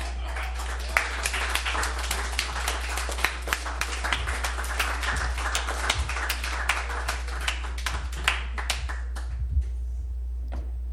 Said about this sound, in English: Well, so you've heard the debate. It's time to make a decision. But I can't I can't judge the applause. I'm biased.